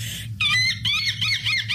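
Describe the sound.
A French girl does a loud, convincing seagull impression for a TikTok challenge of making seagull noises: a series of shrill, wavering squawking cries in quick succession, with no words spoken.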